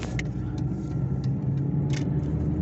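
A steady, low engine rumble fills a moving car's cabin while driving, continuous, with a few brief soft bumps or rattles breaking through. No one speaks.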